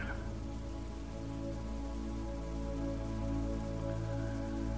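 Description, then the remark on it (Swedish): Steady rain patters onto different surfaces in a continuous, even wash of soft droplets, fairly quiet, with a low sustained tonal hum running underneath throughout. “Hur låter det när regnet träffar olika ytor?”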